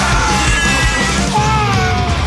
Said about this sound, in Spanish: Poder de super chillar.